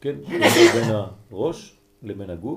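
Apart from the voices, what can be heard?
sneeze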